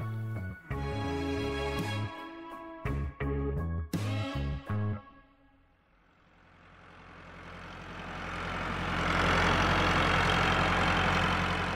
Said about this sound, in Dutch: Van waar deze tractor?